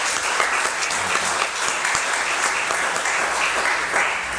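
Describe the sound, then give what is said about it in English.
A church audience applauds the church's transition team, a dense wash of clapping hands that holds at an even, fairly loud level for several seconds without pause. “Let's offer our applause.”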